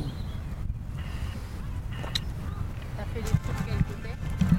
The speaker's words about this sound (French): T'entendras. Euh, à ça va faire des bruits de marteau